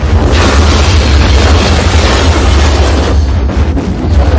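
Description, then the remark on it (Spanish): A massive, sustained explosion from an explosive dropped down an elevator shaft on a chair with a monitor, hitting the freight elevator at the third floor and sweeping the whole floor, roars with deep rumbling bass and a dense blast of noise that stays loud for the whole few seconds, with no voices. “La explosión barre toda la planta.”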